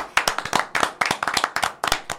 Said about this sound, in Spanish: Quiero hacer un aplauso no espontáneo, bien armado para los dos.